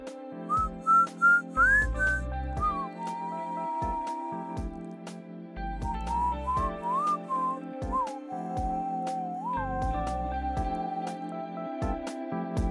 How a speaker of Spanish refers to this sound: Terminó de silbar la tonada que la acompañó desde unas cuadras atrás y comenzó otra favorita